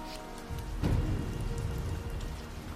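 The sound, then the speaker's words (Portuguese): Heavy rain pours down steadily in a dense, hissing wash during a thunderstorm with strong winds, with a deep low rumble of thunder swelling briefly near the start. No voices are heard. “o gnome entendeu o que seu gato queria dizer e correu até a janela para contemplar tal fenômeno atmosférico que se assemelhava à ira dos deuses, que às vezes açoitavam Fairum, com ventos fortes, trovoadas, relâmpagos, raios e chuva.”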